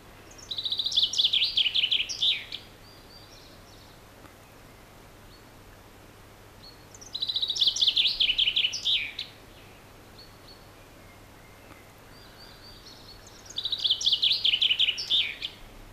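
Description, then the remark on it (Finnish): Three bright common chaffinch song phrases, each about two seconds long, ring out at regular intervals with quiet pauses between, clear against a soft background hiss. “Ja pannaan tähän nyt soimaan ensiksi Peippo.”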